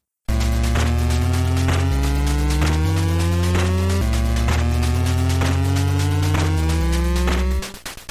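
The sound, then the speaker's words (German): A buzzy chiptune video game riff plays loud and alone, stepping through short, evenly timed notes over a low droning bass for several seconds before cutting off abruptly. “nachdem ich dann gelesen hatte, dass hier die Inspiration wohl … von … war, höre ich das leider auch immer bei dieser kurzen Szene”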